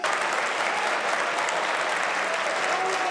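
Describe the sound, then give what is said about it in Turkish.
A large crowd gives a standing ovation for Turkey's security forces, applauding loudly and continuously, a dense, steady roar of clapping that fills the whole stretch with no voices rising above it. “Türkiye'deki güvenlik kuvvetlerimizi ayakta alkışlıyorum.”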